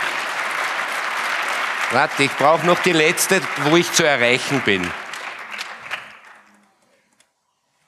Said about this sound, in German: Also einen Applaus für die Ösis